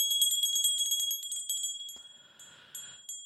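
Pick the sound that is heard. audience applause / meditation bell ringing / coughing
meditation bell ringing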